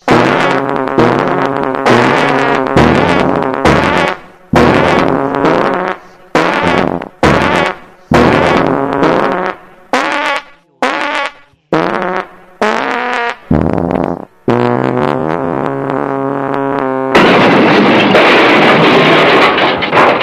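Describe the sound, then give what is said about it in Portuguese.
A long, loud, buzzy fart that sputters through many quick bursts with brief breaks, then finishes in a sustained, rasping blast. Prominent, with no talking. “a gente avisou que um dia ia fazer um podcast de um peido só, né?”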